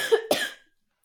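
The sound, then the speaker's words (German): A short, sharp cough made of two quick bursts, the second harsher and breathier, fading out within half a second into silence. No talking. “Gesundheit”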